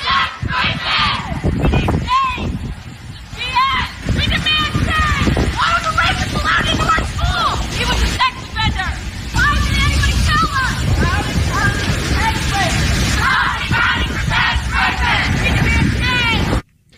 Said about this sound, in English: Here are kids uh, speaking out, chanting as they did a walkout yesterday during the school day.